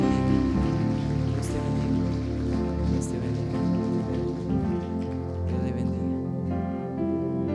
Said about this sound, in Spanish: ¿Les parece si les damos un fuerte aplauso?